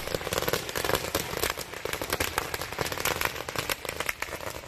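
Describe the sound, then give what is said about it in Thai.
A long string of firecrackers set off as offerings at the Wat Chedi Ai Khai temple goes off in rapid, overlapping bursts, a dense and continuous barrage of sharp bangs and crackles that stays loud throughout, with no voices. “เพราะฉะนั้นเนี่ยเขากำลังบ่นกันว่าถ้าไอ้ไข่ช่วยเรื่องนี้ก็จะถวายประทัดเท่านั้นล้านนัด บางคนบอกว่าล้านนัดไม่พอต้องเท่านั้น10ล้านเสียงเป็นหมื่นเป็นล้านอ่ะพูดกันเป็นขนาดนั้นเลย”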